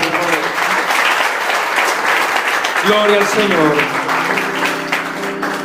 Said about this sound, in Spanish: Denle un aplauso a Cristo esta mañana.